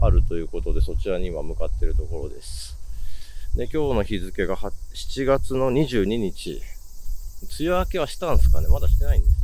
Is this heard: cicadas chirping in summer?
yes